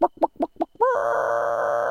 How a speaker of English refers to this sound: I've never found 11 eggs before. Thank you, chickens.